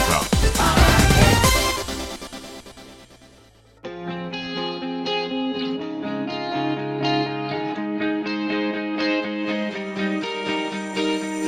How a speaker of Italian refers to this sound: adesso è arrivato il momento di ascoltare un po' di musica e arriva lui con questa Power Hit,